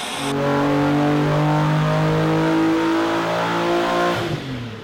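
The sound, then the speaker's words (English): A 300ZX car fitted with a VR38 engine revs loudly and steadily, its deep growling tone holding and shifting pitch for several seconds before easing off near the end, with no voices. “So this video, you went and uh, filmed a VR38 300ZX, very unique and cool car.”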